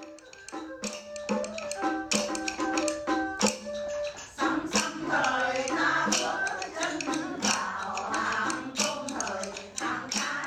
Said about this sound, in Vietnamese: Chắc hẳn quý vị và các bạn đã nhận ra giai điệu của bài sẩm Vui nhất có chợ đồng xuân. Vâng, đây là âm thanh thường có tại đình làng Hào Nam vào mỗi buổi tối hàng tuần.